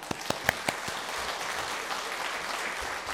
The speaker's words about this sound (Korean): 우리 하나님께 영광의 박수 올려드리겠습니다.